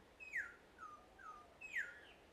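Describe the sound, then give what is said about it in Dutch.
A black-and-orange bird on Bonaire gives clear, descending whistled calls, two louder notes with softer ones between, against quiet background and with no one talking. “Misschien hoor je nu de vogel, en dat is echt het geluid van Bonaire.”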